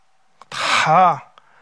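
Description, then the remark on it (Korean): A single voiced sneeze, likely imitated by a person, with a sharp breathy burst that turns into a drawn-out, tonal "choo." It is fairly loud, with silence on either side. “부페 식당에서 한번 어떤 사람이 재채기 한 번 하고 나면다”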